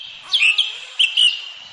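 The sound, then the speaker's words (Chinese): Bright, high forest birdsong with several quick chirps and whistled trills over a steady hiss of background calls, moderately loud and with no voices. “这是森林的声音”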